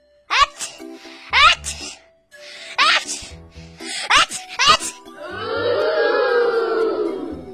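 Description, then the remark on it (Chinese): A voice acts out the story character Huo Maozi (Fire Hat), who has caught a cold, giving a run of about five loud, sharp sneezes in quick succession, then breaks into a long, drawn-out moaning wail. “火帽子又一连打了三十个大喷嚏。”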